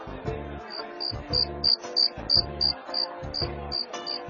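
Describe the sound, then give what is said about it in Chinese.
A cricket chirps in a steady run of about a dozen short, high-pitched pulses, set over rhythmic music with a thumping low beat. “又是一个星期六的晚上，马里奥忽然听到了一种奇怪的叫声，那声音啊，就好像是竖琴的琴弦被拨响了。”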